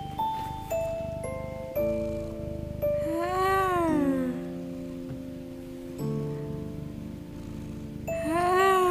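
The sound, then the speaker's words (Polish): A cat lets out two drawn-out, wavering meows, one midway through and another starting at the very end, set against steady ringing, chime-like tones that play throughout. “Kotek, tak, kotek, mruczy.”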